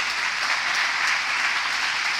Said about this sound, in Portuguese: Quem está aqui, diga glória a Deus. Dá um aplauso a Jesus por isso.